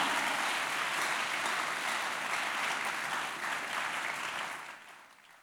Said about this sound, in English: who am I talking to right now who is clapping their hands aggressively now